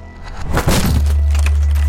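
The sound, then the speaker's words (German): A burst of loud splintering and crashing as two police officers force open an apartment door, followed by a steady low hum that continues to the end. “Okay, wir brechen die Tür auf.”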